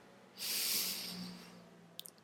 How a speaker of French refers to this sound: Je me suis approchée du lilas, j'ai tiré sur l'une des branches euh, j'ai rapproché le plus possible euh, une fleur de lilas de mon nez. J'ai fermé les yeux et j'ai pris une grande respiration.